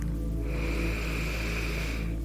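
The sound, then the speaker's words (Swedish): A single long, steady inhale of about two seconds, a soft breathy rush of air with no talking, as a person breathes in again during a breathing exercise. “Och så andas vi in igen.”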